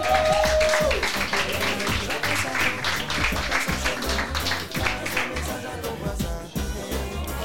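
An audience applauds steadily, a dense wash of many hands clapping that stays loud and even for several seconds, with a short tone sounding at the start.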